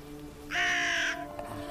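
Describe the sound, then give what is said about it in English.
A single loud, harsh crow caw, drawn out for about half a second, rings out over a steady low background hum, then fades, as a crow perches on a streetlight outside a window in the morning. “Every morning, without fail, my crow arrives and perches on the streetlight outside the window.”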